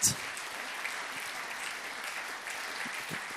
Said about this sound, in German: Wir geben euch einen herzlichen Applaus. Merci viel, viel mal und seid mega gesegnet.